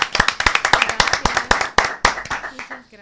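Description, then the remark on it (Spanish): An audience applauds to welcome a guest, a dense, irregular patter of many hands clapping, fairly loud and steady, thinning slightly toward the end. “vamos a recibirte con un aplauso para empezar.”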